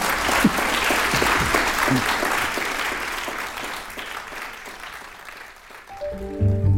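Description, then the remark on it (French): A large audience claps steadily in a sustained, dense round of applause that fades slightly near the end, followed by a few sustained tonal notes of music. “Pour vous, égoïstement, ça fait une heure et demie que vous faites tout pour ne faire aucun bruit. Allez-y.”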